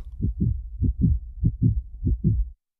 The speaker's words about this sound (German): Intermezzo für ein klopfendes Herz.